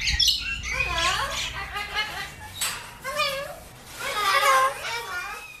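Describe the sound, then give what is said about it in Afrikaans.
A cockatoo, a large white bird with a crest, screeches and squawks for attention in a loud, continuous string of harsh, wavering calls, rising and falling several times across a few seconds, with a faint background hum. “Maar vrywilliger Kiara sê min mense word voorberei op die geskal wanneer hulle aandag soek.”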